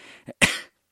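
A short, harsh cough burst preceded by a breathy intake and a small throaty catch, then fading out into silence; one main cough, fairly loud, with no speech.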